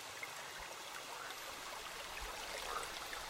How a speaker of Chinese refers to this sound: 以及小溪流水潺潺的声音。